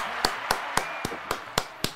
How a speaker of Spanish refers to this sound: Un aplauso era, eh. para Pedro. era mi jefe el Z93. Un aplauso a Pedro.